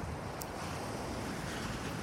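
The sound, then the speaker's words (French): A steady, full rush of ocean surf washing onto a beach, a continuous broad roar with a light breezy hiss, even in loudness, with no voices. “regarder les vagues, jusqu'à ce que le soleil devienne tout rouge et se baigne dans l'océan”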